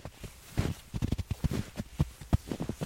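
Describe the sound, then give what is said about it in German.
Footsteps crunching through snow at a steady walking pace, each step a soft, gritty crunch, played from an app as a sound effect. The steps are moderately loud, with no voices. “Und dann plötzlich äh, ne, drückst du bei deiner App irgendwie auf den Knopf und dann hört man so Schritte im Schnee.”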